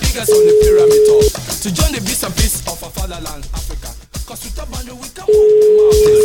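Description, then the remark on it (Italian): A phone call reaches an answering machine: a steady electronic tone sounds for about a second, a voice speaks briefly, then the same flat tone returns at the end. “Risponde la segreteria telefonica.”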